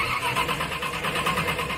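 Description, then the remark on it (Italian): A tractor engine cranks and catches, a rough, rhythmic chugging that pulses steadily and stays loud throughout, with no voices over it. “Ma che macchina ha preso? Il trattore ha preso.”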